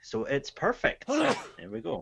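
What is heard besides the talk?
sneeze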